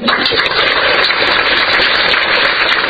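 A crowd claps steadily for the whole stretch, a dense, crackling wash of many hands at a loud, even level with no voices rising above it.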